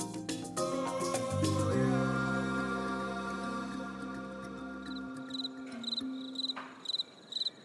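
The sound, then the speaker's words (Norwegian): Crickets chirp in steady, regular pulsed bursts on a mild night under the stars in Africa, growing clear once a swelling musical passage fades out partway through. “Sirissene sang, og det var mildt i lufta.”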